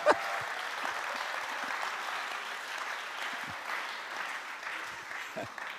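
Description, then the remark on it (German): Steady applause from an audience during a sermon fills the whole stretch, a dense wash of many hands clapping at even loudness with no talking over it. “Warum klatschen wir nicht einmal alle und lachen einmal laut und dann können wir weitermachen?”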